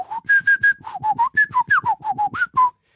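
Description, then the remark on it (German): A person whistles a rapid run of short, clipped tones imitating a modem's data tones, hopping between two or three pitches like data beeps, about fifteen quick notes over three seconds, clear with no talking. “Ja, ja, ja, das, das ist ein Modem. Das ist Ganz ein bisschen schneller, als was du da gerade gepfiffen hast.”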